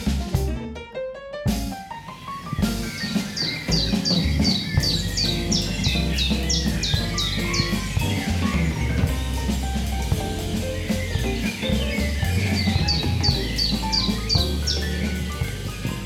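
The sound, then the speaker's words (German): A dense outdoor chorus of many birds chirping and singing at once in a city, not a bird park, with rapid repeated high twittering phrases over a steady layered backdrop of calls, loud and continuous throughout. “Nein, wir wären in einem Vogelpark.”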